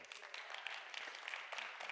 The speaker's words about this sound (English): Make sure you're clapping for Jesus and not me.